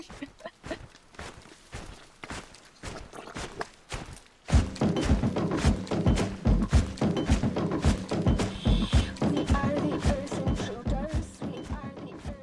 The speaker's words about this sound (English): I can't help but think about the squishy sounds of like the stomping at the beginning of that song.